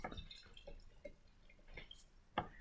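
Beer being poured into a glass: soft, uneven splashes and drips with a faint fizzing hiss, quiet, ending in a sharper clink-like splash.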